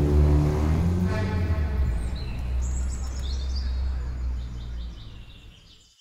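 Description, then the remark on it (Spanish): A chiguanco thrush calls in short, thin chirping phrases over a heavy low rumble of passing traffic that fades toward the end. “donde podrían encontrarse con un curioso picaflor o con un chihuanco o zorzal como lo conocen en otras ciudades que les dice que la lluvia está por llegar.”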